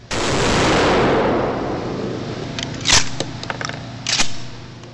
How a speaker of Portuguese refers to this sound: Depois dessa primeira experiência, que incluiu ainda dois tiros de espingarda calibre 12,